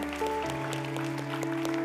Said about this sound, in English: Let's give the Lord clap offering this morning. God is good, amen.